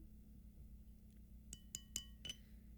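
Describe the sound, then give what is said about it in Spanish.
A beer bottle being slowly opened: four sharp, ringing glassy clinks in quick succession over a steady low background hum, with no talking. “Ya saben, destapamos un poquito lento y vamos vaciando.”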